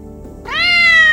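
A single drawn-out cat meow that rises at the start and then holds steady, bright and fairly loud over a faint low hum, with no one talking.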